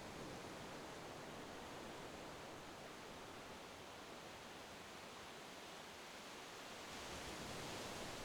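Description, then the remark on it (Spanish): A steady, dense hiss of ocean surf, continuous, with only a faint swell near the end. There are no voices, just the unbroken wash of the waves. “Escucha las olas y piensa en este paisaje tan maravilloso.”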